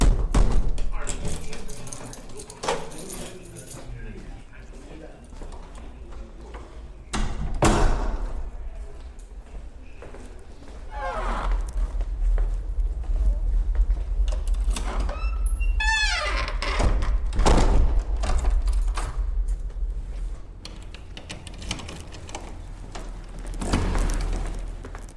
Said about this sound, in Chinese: 这是一家精神病院的病栋里关门的声音。从病房的走廊到楼栋的门外，每一扇门的声音都稍许不同。一共有五道门。